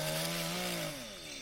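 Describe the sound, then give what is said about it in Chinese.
A small electric saw buzzes with a steady, loud motor whine, then its pitch sags as it bites into wood, cutting timber into boards of different lengths in a gritty cutting drone with no voices. “他伸出右手，转变成一个小电锯，再将木材切割成许多长短不同的木板。”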